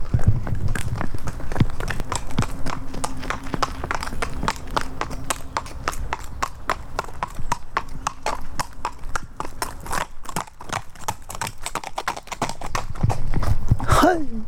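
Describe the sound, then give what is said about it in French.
Hooves of two small free-roaming horses clip-clop in a steady, rapid rhythm on a path to the beach near Brest, France, with a faint low hum underneath and a brief rising squeal near the end. “Mais que vois-je sur le chemin en allant à la plage Mais c'est des petits chevaux”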